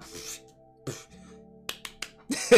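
A handful of sharp hand claps land at an uneven pace, a few crisp single smacks among softer, longer bursts, over a faint steady low hum. No one speaks.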